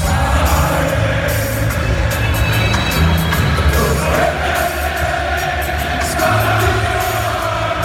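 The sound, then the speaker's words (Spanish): A large football crowd sings a reggae song that is an anthem at many football clubs, a loud, continuous mass of voices with cheering mixed in and no single voice standing out. “El autor y cantante de esta canción, que ahora vais a escuchar más claramente, y que es todo un himno en muchos equipos de fútbol, uno de ellos el Ajax.”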